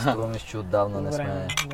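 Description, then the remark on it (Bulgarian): Glasses clink together in a toast, a few bright chinks near the end, while people keep talking over them. “Добре, дайте да направим едно на здраве.”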